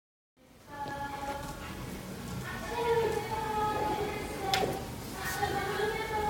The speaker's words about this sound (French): Là, ce que vous entendez, c'est ma voisine d'en face. Elle chantait et je l'entendais depuis ma chambre. Alors, je suis sortie pour l'enregistrer parce que je trouvais ça drôle.